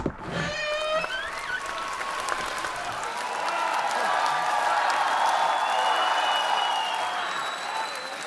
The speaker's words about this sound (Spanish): Cientos de personas llegadas de toda la provincia llenan las calles. Tras aplaudir bajo el balcón de Felicia, recorren los cien pasos y al llegar al balcón de Badalamenti, el grito de la gente resuena en todo Chinisi.